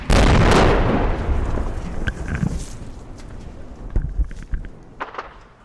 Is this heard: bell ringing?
no